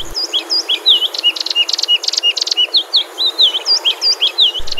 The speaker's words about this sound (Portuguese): Eu estou falando da patativa, é um passarinho que tem duas populações do Brasil, uma no norte, lá em Roraima, Mapá e Pará, e outra no centro-oeste, sudeste e nordeste do país